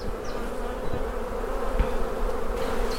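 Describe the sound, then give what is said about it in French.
A dense, steady hum of many honeybees swarming around an open hive on Belle-Île as a puff of smoke is given between each frame and the queen is found, continuous, with faint higher-pitched buzzes of individual bees passing. “Un petit coup de fumée entre chaque cadre. Ah, la reine est là.”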